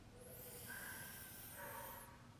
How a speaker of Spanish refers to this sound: respiración profunda.